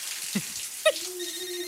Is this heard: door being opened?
no